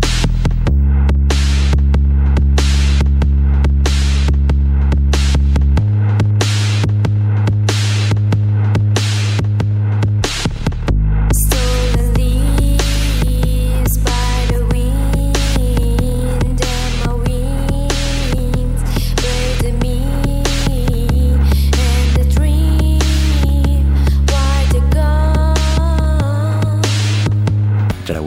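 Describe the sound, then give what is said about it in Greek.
A loud recording by one of the few rock bands in Tehran, Iran, plays with heavy sustained bass notes and steady drum hits; around eleven seconds it swells into a fuller, denser section with a melodic lead line, no talking over it. “Δηλώνουν ότι έχουν επιρροές από συγκροτήματα όπως η … και ο δικός τους ήχος βγαίνει κάπως έτσι.”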